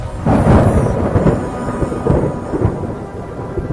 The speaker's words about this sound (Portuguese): Quando terminei de falar isso, a chuva que estava caindo lá fora aumentou. E um relâmpago, e um raio caiu praticamente ao lado de nossa casa.